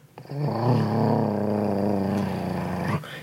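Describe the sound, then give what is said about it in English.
A voice imitates a dog's low, rumbling growl, held steadily for nearly three seconds before cutting off abruptly, portraying a dog sitting and growling with the hair on its neck raised. “and you kind of turn around and you see the dog like sitting there like growling at you.”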